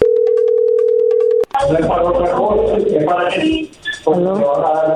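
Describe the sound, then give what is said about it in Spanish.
A steady, loud telephone ringback tone hums for about a second and a half, then cuts off abruptly as voices start talking over the line. “No haga ruido, ahí se está marcando.”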